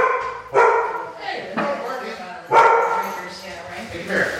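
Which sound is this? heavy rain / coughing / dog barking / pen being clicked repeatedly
dog barking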